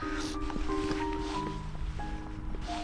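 Steady outdoor wind rushing across the microphone, a constant, fairly loud blustery noise with low rumble and faint tonal hums beneath, no one speaking.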